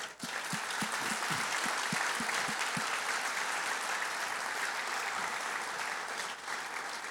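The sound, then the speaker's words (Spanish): A crowd applauds steadily for about seven seconds, a dense, even wash of many hands clapping, with a run of regular low thumps in the first few seconds. “Yo quiero que le demos un aplauso a los sugieres.”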